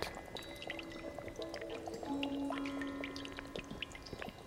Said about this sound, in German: Tropf. Dieses Geräusch erinnert mich daran, dass sich unsere Liebe in Abflüsse, Überlaufbecken und, und tote Arme verirrt hat.